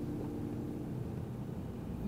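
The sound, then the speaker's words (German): A steady, low road-and-engine rumble fills the cabin of a moving car, even and unbroken throughout, with no voices or other distinct sounds standing out. “Wir sitzen gerade im Auto auf dem Weg zu dem Dao”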